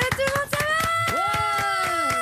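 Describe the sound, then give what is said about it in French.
An audience warmly applauds to welcome a person joining a weekly show: a steady patter of many hands clapping, at an even loudness throughout, with a sustained tonal sound that bends in pitch running over it. “Je demande, et c'est le seul moment où je le fais dans l'émission, à tous ceux qui sont ici, d'accueillir et d'applaudir chaleureusement”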